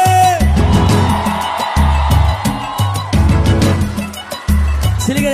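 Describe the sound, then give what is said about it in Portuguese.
A large concert crowd in Rio de Janeiro whoops and yells loudly at night over pounding live music, the steady beat thumping in short bursts beneath a dense, roaring wall of voices. “Quem tá feliz dá o grito aí.”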